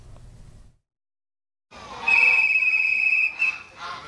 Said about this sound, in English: The keeper blows a whistle and the geese waddle out. They march forward in formation behind their human, melting the hearts of everyone watching.